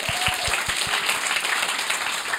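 A crowd applauds steadily, a dense wash of clapping that holds at an even loudness throughout, with a few low thumps in the opening second.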